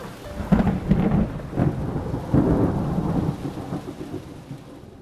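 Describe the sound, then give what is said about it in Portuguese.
Deep rolling thunder rumbles through steady heavy rain, swelling in a few loud booming surges before fading slightly toward the end. No one speaks. “Tenho lembranças difusas de uma forte tempestade algum tempo depois de retornar ao barco. De qualquer modo, sei que ouvi trovoadas e outros sons que a natureza só emite em seus momentos de maior furor.”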